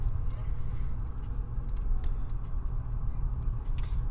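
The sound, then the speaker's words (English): Steady low rumble of road noise inside a moving car driving past a Jimmy John's restaurant, constant and fairly loud throughout, with a few faint clicks and muffled voices in the background. “Oh my gosh, we're driving by a Jimmy John's right now.”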